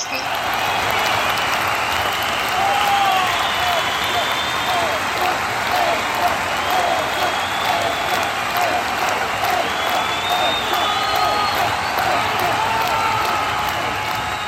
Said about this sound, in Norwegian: Og så skal vi applaudere. Nå, nå går en applaus i bakgrunnen. Eh, applaus for deg og dine folk som greide å ta Guinness-rekord på, på, Universitetet eh, i Oslo, eller på Forskningsparken i Oslo.